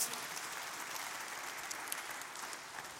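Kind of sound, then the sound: crowd, audience applauding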